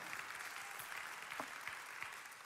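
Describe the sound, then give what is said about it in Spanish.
A church audience applauds everyone attending, a dense, steady wash of many hands clapping that holds at an even level for the whole moment, with no voices standing out. “Si le damos un fuerte aplauso a todas las personas que nos acompañan hoy.”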